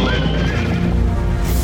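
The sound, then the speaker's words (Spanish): A horse neighs with a loud, shrill whinny that wavers in pitch, with faint hoof clip-clops underneath throughout the short burst. “En su corcel, cuando sale la luna, aparece el bravo zorro.”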